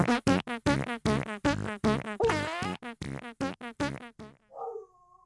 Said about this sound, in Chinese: 狗不知道为什么在叫